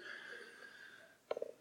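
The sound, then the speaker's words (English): A short, sharp sneeze from someone in an audience bursts out near the end, a quick stuttering blast over a faint steady background hum, with no talking. “bless you.”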